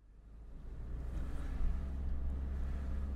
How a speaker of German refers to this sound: Jetzt haben wir halt ein bisschen Verkehr hier, weil wir das Dorfzentrum gerade am Sanieren sind und eigentlich am Neugestalten.